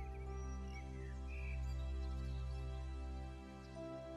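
Soft, scattered bird chirps and short warbling calls drift over a sustained, swelling orchestral backdrop, the birdsong faint and partly blended into the music, with no one speaking.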